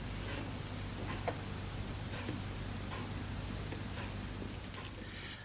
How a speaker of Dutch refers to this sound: Toch vond ik twee weken geleden ineens een opname die wel ging over het tikken van de klok.